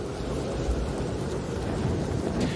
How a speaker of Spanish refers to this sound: Pues esto es un huracán, una de esas tormentas que si has estado alguna vez en Estados Unidos, en México o en la India, pues quizá la has visto de cerca.